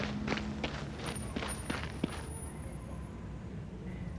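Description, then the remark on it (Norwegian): Quick, hurried footsteps of someone running to the nearest manhole cover, about half a dozen steps in a steady rhythm over a couple of seconds, then fading into a low, noisy background. No one speaks. “Så løp jeg bort til nærmeste kumlokk og lyttet.”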